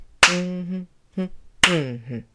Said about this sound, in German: das sind jetzt die Downbeat die sie klatschen.